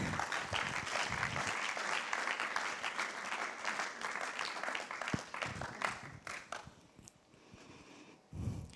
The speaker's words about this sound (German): Geben wir ihnen doch einen herzlichen Applaus, kommt doch auf die Bühne.